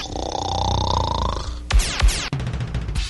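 A long, rough, buzzing snore drones loudly for about a second and a half, then gives way to a few abrupt, harsh noise bursts.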